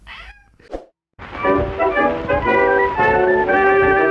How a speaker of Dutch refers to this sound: De kat. Fred kat, frette kat, frette kat, Fred de cat. Miauw, miauw, miauw, miauw. Fred heeft een beetje pijn in zijn keeltje, hè? Keelontsteking, hè, Freddy?